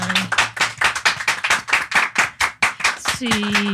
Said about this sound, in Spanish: quiero pedir un aplauso para ella.